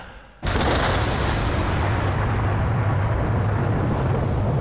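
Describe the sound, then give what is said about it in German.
A sudden loud crack of thunder from a heat thunderstorm, with lightning out of a clear sky, bursts in and rolls on as a heavy, sustained rumble with deep low-end weight, holding steady to the end with no voices. “Bestimmt ein Hitzegewitter mit Blitz aus heiterem Himmel.”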